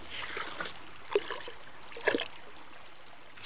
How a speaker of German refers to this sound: schöpft hier und da ein bisschen Wasser in den Eimer und nimmt immer wieder einen Becher voll mit Wasser. Der kommt dann in den Eimer und weiter geht's.